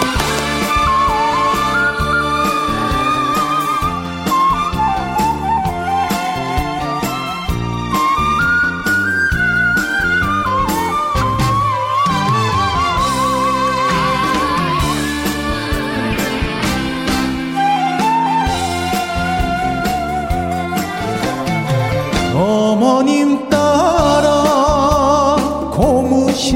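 An upbeat instrumental music intro plays loud and steady, with a bright whistle-like melody line weaving over full accompaniment; no voices are heard.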